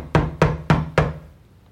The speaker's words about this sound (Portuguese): Uma batida forte tirou Hastings de suas divagações. Encontrou Antíoco na porta da casa de tijolos vermelhos